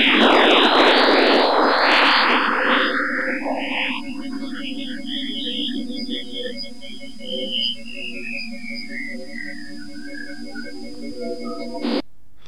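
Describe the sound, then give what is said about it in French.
Jupiter's radio emissions, at roughly 30 to 40 MHz and detectable with ground-based radio telescopes, rendered as sound: a dense burst of rising, sweeping chirps, then eerie descending whistles over a steady electronic drone that cuts off abruptly near the end. “Jupiter émet entre 30 et 40 MHz à peu près, et bien qu'il traverse l'ionosphère terrestre et est détectable avec les radiotélescopes au sol, comme un On écoute Jupiter.”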